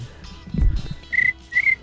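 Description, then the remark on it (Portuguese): A person imitates a cricket with two short, high, whistled chirps in quick succession, fairly loud, after a brief low breathy thump. “Como é que é o grilo”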